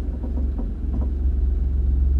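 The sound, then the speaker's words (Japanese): A steady low engine rumble fills the space from inside a car on the drive home from work, a constant droning hum with faint road noise, moderately loud, with no talking. “でも私に一番合ってる撮り方が、えー、通勤中、えー、帰宅途中っていう車の中で撮るっていう、えー、ことでした。”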